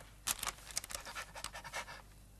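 A dog pants quickly and steadily, a run of breathy huffs in an even rhythm, soft, with no voices.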